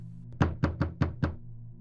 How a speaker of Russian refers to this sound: раздался громкий стук.